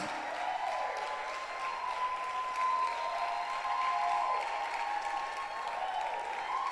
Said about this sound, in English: Please put your hands together and let's welcome my word squad. Clap for the word squad.